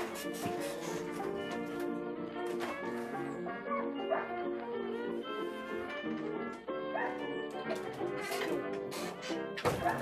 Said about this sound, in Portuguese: Ah, que cachorro irritante, cara. Cachorro, filha de uma puta esse cachorro.